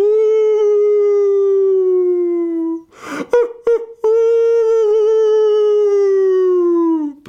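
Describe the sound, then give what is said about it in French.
Two long, loud wolf howls, each a steady, slightly falling tone held for several seconds, separated by a brief breathy, scuffling pause. No talking. “Et l'histoire, ah ben l'histoire, ce sont les loups, c'est bien ça.”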